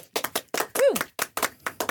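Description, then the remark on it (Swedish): Hands clap in a quick, slightly uneven patter, roughly a dozen sharp claps over two seconds, with a brief voiced exclamation rising and falling midway through. “Ja, jag hoppas att du applåderar, för det gör vi alltid.”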